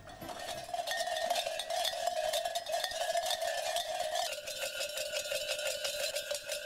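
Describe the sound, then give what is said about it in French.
Loud, continuous clanking of many metal livestock bells worn on belts by young people going through the streets of the village of Apeiranzos, Greece, during the Apocria carnival, jangling densely together in an irregular rhythm, with no talk over them. “Avec des ceintures de clochettes empruntées au bétail, les jeunes parcourent les rues à l'occasion d'Apocria, le carnaval en Grèce.”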